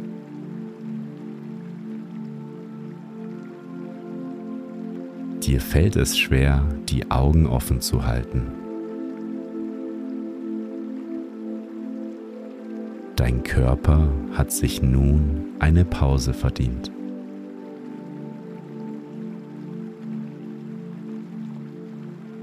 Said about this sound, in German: Du hörst das Rauschen des Wassers und wirst immer mehr müde.